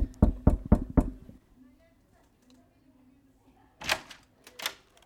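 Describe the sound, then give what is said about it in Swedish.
Five quick, sharp knocks on an office door, evenly spaced, followed by a short quiet pause and then a couple of brief voices calling out greetings. “Så jag tänker att vi knackar på så ska vi presentera honom också.”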